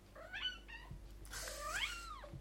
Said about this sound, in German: Miau, da hören wir im Hintergrund äh, Mannis Katze, die auch was beizutragen hat.